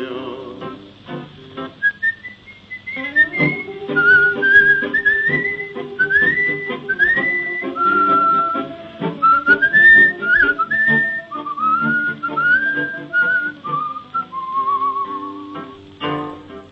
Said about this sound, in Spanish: y un reo meditabundo va silbando esta canción.